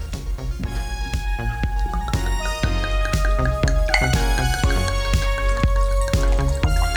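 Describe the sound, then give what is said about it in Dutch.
Wine is poured into glasses, a steady splashing fill with bright ringing tones that rise in pitch as the glass fills, punctuated by small clinks and drips. No one speaks. “terwijl Thijs de glazen inschenkt”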